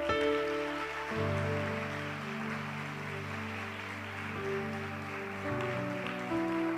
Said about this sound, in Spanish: ¿Cuántos pueden darle un fuerte aplauso al Señor?